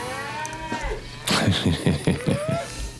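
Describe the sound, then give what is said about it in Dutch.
A cow moos loudly, a deep, drawn-out lowing broken into several throaty pulses, with softer bellowing calls just before it and no one speaking. “Even kijken hoor, of de koeien, want die hebben we nou weken niet meer gesproken.”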